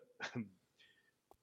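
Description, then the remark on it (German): One sharp sneeze bursts out, a quick breathy explosion with a voiced tail, followed by a brief faint murmur and a small click. “Gesundheit.”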